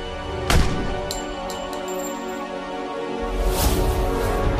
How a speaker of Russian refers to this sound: Но ответа не последовало. Вместо него прозвучал выстрел.